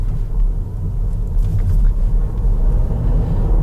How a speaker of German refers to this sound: Also man spürt mehr die Vibrationen des Motors, als dass man das Geräusch hört. Und das spürt man im ganzen Auto, also im ganzen Körper und man spürt es eben zum Teil auch in den Händen, im Lenkrad.